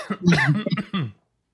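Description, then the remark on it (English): A short burst of raspy coughing from a person choking on some water: three or four rough, sputtering coughs in quick succession, loud, then silence. “I'm choking on some water.”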